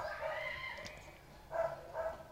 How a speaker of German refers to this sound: ich hoffe, der Hund ist weit genug weg, um ihn nicht zu sehr zu hören.